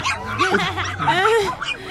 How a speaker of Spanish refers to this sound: ahí hasta le ladraron unos perritos al chico